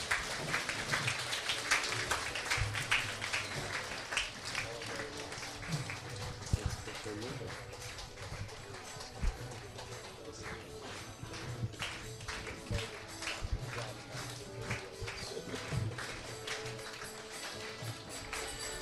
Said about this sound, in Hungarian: You can keep the applause going. That'll encourage these young girls. They're a little nervous too.